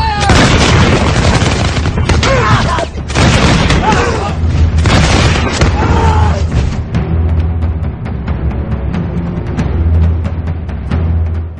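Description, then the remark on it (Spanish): A massed volley from 300 muskets set on forked rests, fired at the enemy vanguard, erupts in a dense, rolling crackle of shots with a deep rumbling boom underneath, then thins into scattered, fading reports as the firing trails off. “Ajustaron las horquillas al suelo, apuntaron con sus mosquetes y todos a una, los 300, abrieron fuego sobre las vanguardias enemigas.”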